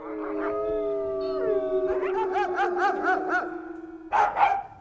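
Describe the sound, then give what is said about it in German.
Several wolves howl together in long, overlapping wavering tones, one voice sliding downward while others rise and pulse, a full chorus heard clearly with no talking. “Wie war die Entwicklung vom Wolf zum Hund?”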